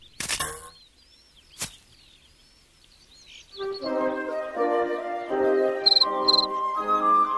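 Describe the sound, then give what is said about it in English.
A big cricket chirps by rubbing its wings together, in short, bright bursts, with a couple of sharp clicks early on, followed by a steadier layer of sustained, musical-sounding tones. No one speaks. “Welcome, chirped a big cricket, rubbing his wings together.”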